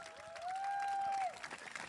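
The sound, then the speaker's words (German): An audience claps steadily throughout, a dense crackle of many hands, while a single long sustained whistle rises above it for about a second before the clapping carries on. “Wir sind heute die ein oder andere Extrameile gegangen, deswegen der Applaus tut einem gut.”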